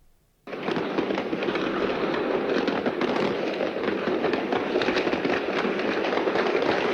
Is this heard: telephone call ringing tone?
no